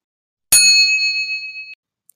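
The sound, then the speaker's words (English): A single bright electronic ding, a phone message notification as another text message arrives while walking into an alley, rings out clearly and decays over about a second, followed by a tiny faint tick. No one speaks. “My phone lights up with another message from Jessica.”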